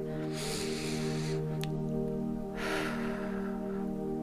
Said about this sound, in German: Und leg ruhig mal deine Hand einfach auf dein Herz und nimm mal bewusst deinen Atem wahr. Erstmal einfach nur atmen.